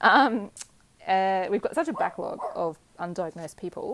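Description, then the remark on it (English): A dog in a stable barks a few short times while a person keeps talking, the barks cutting in loudly over the speech. “That's my dog that you can hear barking there because I'm sitting in the stable right now.”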